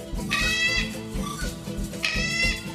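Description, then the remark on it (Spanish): A toucan calls twice, each a short, bright, strained cry with a raspy harmonic edge, heard over a steady low rhythmic musical backing. No one speaks. “Los niños también escuchamos canto de Tucán.”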